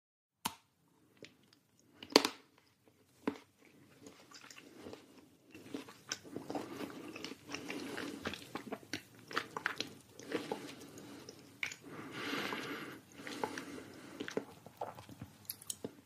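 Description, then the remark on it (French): Crunching and chewing as a grandmother eats a chocolate Easter egg: a few sharp bites at first, then a long stretch of steady, wet mastication with bursts of crackling crunch, with no talking. “C'est votre grand-mère qui mange un œuf de Pâques.”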